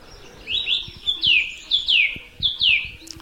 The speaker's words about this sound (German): Wenn sie zieht, also des Nachts, jetzt gerade kann man das hier hören, dann ist das natürlich wesentlich unspektakulärer. Die Singdrossel ist vielleicht die Drossel schlechthin. Also tatsächlich, jeder kennt sie irgendwie,